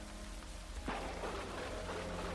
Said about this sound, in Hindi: इतने में बादलों ने जोरदार गड़गड़ाहट शुरू कर दी जोर से बारिश ने बरसना शुरू कर दिया